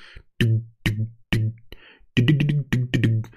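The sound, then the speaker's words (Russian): A voice mimics a bass guitar line with a fairly loud run of short, deep plucked-style notes: four spaced hits, then a quicker rhythmic cluster of notes. “Она понимает, что это бас-гитара, ну, приблизительно, да, и делает вот эту написано бас-гитару, и потом залупливает это.”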